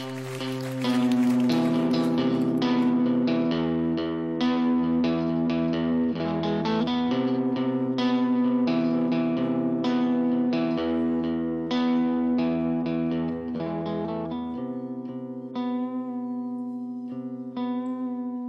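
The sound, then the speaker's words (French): A melodic piece of music plays steadily for the whole stretch, sustained harmonic notes with a reverberant, effect-laden tone, at an even volume and with no voices. “On va écouter euh, un morceau de musique que tu as choisi.”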